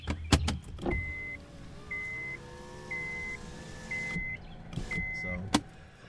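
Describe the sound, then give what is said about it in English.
A car's power window hums and whines upward for several seconds, rolled up because rain is getting into the car, with a soft electronic beep repeating about once a second and a few sharp clicks at the start and end. “Um, okay, now I'm going to have to actually roll the window up more because it's now raining inside the car.”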